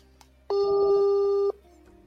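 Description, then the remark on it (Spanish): A single steady ringback tone as a phone call is being connected, sounding for about one second, clear and fairly loud, with no voices around it. “vamos a intentar, vamos a trabajar, vamos a conectar con una llamada.”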